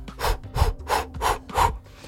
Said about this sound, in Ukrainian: І це усі техніки, які мають такий короткий, швидкий видих. Ну, Наприклад, е, називаються технікою дихання вовка. Сутність просто в тому, що треба дихати швидко, концентруватися на видосі так.